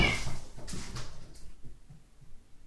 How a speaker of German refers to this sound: Das waren die Katzen, die gerade kämpfen hier. Okay, ihr habt auch Spaß, sehr schön.